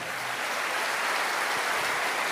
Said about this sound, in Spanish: Alguien tiene que aplaudir más que eso si de verdad están convencidos, ¿sí o no?